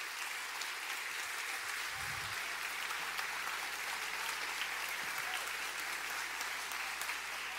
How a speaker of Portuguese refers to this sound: Coloque de pé, vamos dar uma linda salva de palmas.